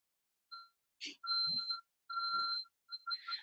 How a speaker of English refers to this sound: sorry about that my house alarm's going off